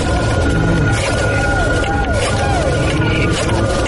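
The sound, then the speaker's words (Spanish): A dial-up modem connecting to the internet: loud, steady electronic screeching and hissing, with a held tone and repeated warbling chirps over a dense static-like rush, continuous throughout. “¿Recuerdas el sonido de tu modem conectándose a internet?”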